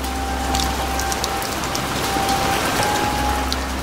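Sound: rain falling outdoors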